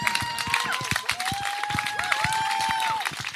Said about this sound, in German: Gut, komm her. Applaus für den Kollege hier vorne.